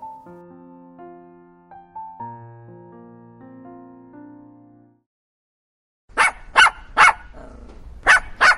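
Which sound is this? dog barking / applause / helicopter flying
dog barking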